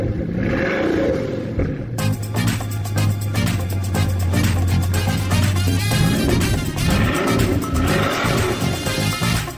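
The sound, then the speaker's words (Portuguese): The engine of a Bugatti La Voiture Noir hypercar revs loudly and steadily, its pitch climbing and dipping in sustained surges, with no talking over it. “O carro mais caro do planeta, Bugatti La Voiture Noir.”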